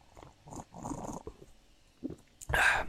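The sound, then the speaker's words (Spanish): Soft mouth and breath noises, then a loud, hissing slurp near the end as someone takes a deliberate sip of coffee. “Así que, pues, si estás aquí conmigo, eh, me estás escuchando, estás escuchando mis sorbos de café, a ver si se escucha.”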